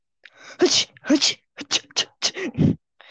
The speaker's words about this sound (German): Ist dir mal aufgefallen, dass jeder Mensch irgendwie anders niest? Nö, ich niese immer so. Ja, und also in, irgendwie in einem anderen Ton. Da könntest du ja aus drei verschiedenen Menschen ein Niesorchester machen.